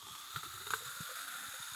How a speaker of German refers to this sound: Ah, ich höre schon Beruhigung in diesem Sprudeln.